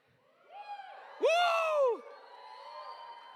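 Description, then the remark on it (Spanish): A crowd of voices shouting and cheering together, swelling into one loud sustained collective yell in the middle before settling back to a lingering murmur of the audience. “Sí, sí, sí, hay que gritar, no, no pujar, ¿no? No, hay que hacer un buen grito.”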